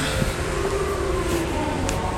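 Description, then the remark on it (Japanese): Steady roar of busy street traffic as someone walks past a yakiniku restaurant, a continuous wash of engine and road noise with a faint wavering tone running through it; nobody speaks. “まあそんな感じで車通りも多くなってきたので今日はこの辺で終わりにしたいと思います”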